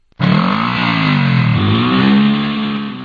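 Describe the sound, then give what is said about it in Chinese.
A snowmobile engine revs loudly and steadily, its pitch sagging briefly midway before climbing again, a continuous buzzing roar with no voices. “爸爸带着谢丽儿回到镇上，给他买了一辆属于他自己的雪地摩托车。”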